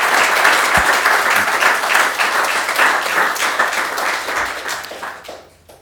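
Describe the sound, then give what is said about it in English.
Steady, dense applause from an audience for the panelists at the close of a panel session, loud and continuous with many overlapping claps, then thins and fades out near the end. “Well, listen, I think we're going to leave the session there, but can I ask you to show your appreciation for the panelists and their contribution?”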